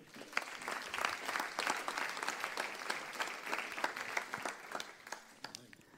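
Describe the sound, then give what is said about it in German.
An audience applauds steadily for several seconds, a dense rattle of many hands clapping at once with no voices over it, holding a fairly even loudness throughout. “Okay, Applaus für”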